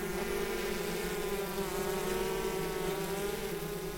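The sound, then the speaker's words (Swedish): A steady droning hum of many honeybees fanning their wings at a hive, continuous and even with a rich buzzing tone and no voices. “Det är deras fläktande man hör där.”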